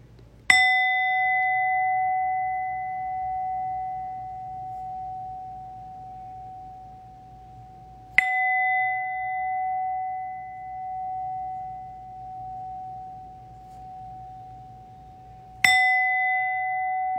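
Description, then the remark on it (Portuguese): A zazen meditation bell is struck three times at slow, even intervals, each strike ringing out with a clear, sustained tone that fades gradually before the next. No one speaks. “Normalmente, quando a gente vai convidar o sino a soar, a gente é, coloca as mãos impressas em frente ao rosto, faz um gachô, uma reverência, e aí a gente convida o sino a soar.”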